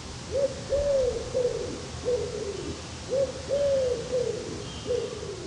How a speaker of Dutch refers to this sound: Oh, mooi laag geluid. Het lage gekoer is natuurlijk van de grootste duif van ons land, de houtduif. Als ik hem zelf moet omschrijven, een grote vogel inderdaad. Grijs gekleurd. In de nek lijkt het wel een disco aan kleuren.